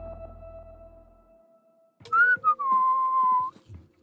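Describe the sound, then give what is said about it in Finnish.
The rapper whistles a short, clear melodic phrase in the booth, fairly loud, with sliding pitches and a brief break, after about two seconds of near silence with a faint low hum. “Tuo kaunis vihellys kuului …,”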